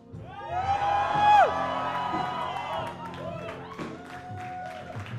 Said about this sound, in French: Est-ce que tu peux crier un cri de guerre et de victoire